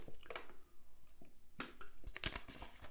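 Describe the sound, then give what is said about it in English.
A swig of water from a plastic bottle: crinkling plastic, soft wet gulps and swallowing clicks in a few short, uneven bursts, with no talking. “But, anyway, it's the first off, swig of water for the working man. Here, the water in the water bottle.”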